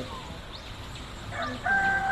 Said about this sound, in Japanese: 耳が鶏がね もう鶏が鳴ってますね。